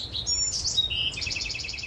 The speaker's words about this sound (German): Auch 8500 Kilometer weiter hat in Seattle eine naturbegeisterte Deutsche in einem Park nahe der Westküste Vogelstimmen aufgenommen